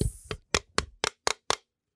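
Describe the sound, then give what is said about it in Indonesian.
An empty beer can is tapped in a quick, even series of six or so sharp, hollow hits, each one loud and bright, then silence. “jelek banget suaranya suara kaleng kosong birnya habis nih”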